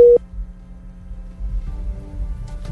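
A single short WhatsApp call tone sounds loudly at the start as the call reconnects, then gives way to low, muffled, garbled noise as the signal drops.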